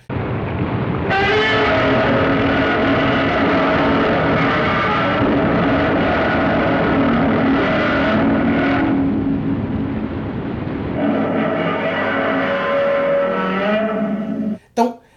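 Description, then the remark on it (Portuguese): A loud, harsh monster roar made by gloved hands playing the strings of a double bass without a bow, grinding on for over ten seconds in long, rasping swells before shifting tone and cutting off abruptly. “Então cria aquele som característico do Godzilla, aquilo é um som de contrabaixo.”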